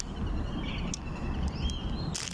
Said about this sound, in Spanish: sí, ahorita se escuchan los pajaritos y acá todo rifado.